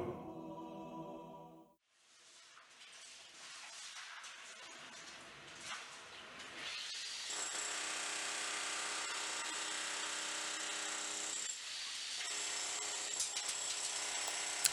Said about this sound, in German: Ähm, ich weiß nicht, ich höre es im Hintergrund wahrscheinlich schon, es wird gerade hier schon die Bühne aufgebaut.